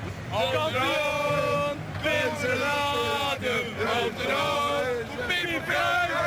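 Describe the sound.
A large crowd of Feyenoord football fans celebrates their team's win on the Coolsingel street, many voices chanting and shouting together in loud, continuous, rising and falling waves.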